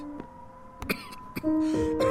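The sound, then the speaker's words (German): A man gives two or three sharp, forceful coughs, spaced unevenly, with faint sustained tones humming underneath and no talking. “Gerstecker hustete kräftig und wandte sich anderen zu.”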